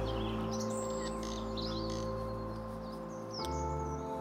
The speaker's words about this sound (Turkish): Şimdi kendini muhteşem bir doğa manzarasında buluyorsun. Yemyeşil çimen kokusu burnuna geliyor. Kuş cıvıltılarını duyuyorsun.